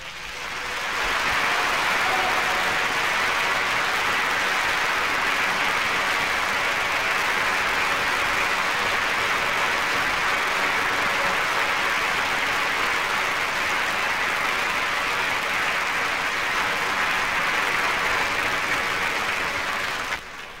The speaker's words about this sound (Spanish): y me refiero al pintor Augusto Crespín, quien esta noche está con nosotros y a quien vamos a ofrecerle estos aplausos tradicionales del programa.